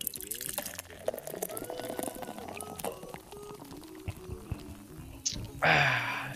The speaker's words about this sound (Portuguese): É isso, tintinha aqui, ó. Agora vou tomar um golinho.